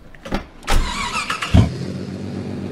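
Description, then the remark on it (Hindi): A car engine revs and pulls away out of a parking lot late at night onto a main road, driven at somewhat high speed, with a couple of sharp low thumps and steady road rumble. No one speaks. “गाड़ी अच्छे से चला रहे हैं स्पीड थोड़ी ज़रूर ज़्यादा है”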